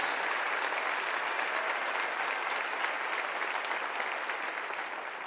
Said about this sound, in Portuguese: Vamos aplaudir ao Senhor pela vida desta igreja. Glória a Deus.